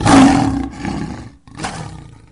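A deep, rumbling lion roar, loud, with a second shorter roar following after a brief pause. No one speaks.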